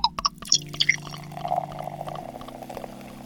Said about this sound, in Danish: Jeg hælder op.